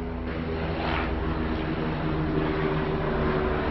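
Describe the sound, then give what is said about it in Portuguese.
A steady, fairly loud engine drone with a low, throbbing hum holds for a few seconds as another helicopter flies overhead. No one speaks. “Outro helicóptero.”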